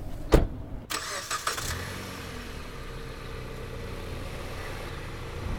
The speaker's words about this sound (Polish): Okej, okay, to my już jesteśmy w samochodzie, już ruszyliśmy